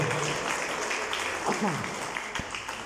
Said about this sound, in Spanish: Denle ese aplauso más fuerte al Señor, por favor.